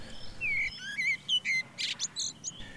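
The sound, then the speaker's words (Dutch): A male blackbird sings a clear, whistling song of fluty phrases and quick high chirps in a varied, continuous sequence, with no talking. “En een mannetje is ook degene die zo mooi kan fluiten.”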